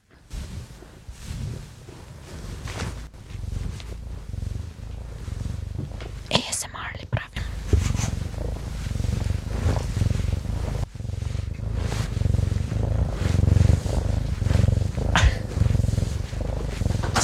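A black male cat that sees very little purrs loudly and steadily, a continuous low rumbling drone lasting the whole time, with soft rustling and faint breathy noises on top.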